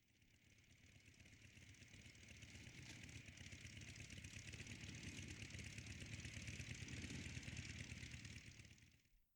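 A motorcycle engine, on a motorcycle giving off a lot of smoke and ridden by the character Drake Dog, idles steadily with a rumbling low throb and a hissing upper layer, holding for several seconds before cutting off abruptly.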